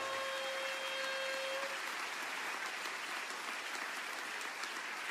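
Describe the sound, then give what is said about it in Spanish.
A crowd applauding, a dense, steady wash of clapping that holds for about five seconds, with a thin, high tone ringing briefly at the start. No one speaks. “Alguien tiene que aplaudir fuerte y decir, pero qué lindo, no lo había pensado.”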